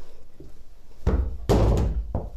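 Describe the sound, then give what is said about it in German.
Three loud slaps of a hand on someone's buttocks, each a sharp smack, the second the heaviest, spaced unevenly over about a second with no talking. “Das war doch nur dein Hintern.”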